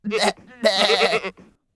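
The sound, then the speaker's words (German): A human voice imitates a goat's bleat, a quavering, wavering cry in a few short bursts, fairly loud, with a brief breathy trail at the end. “Die Ziege antwortete.”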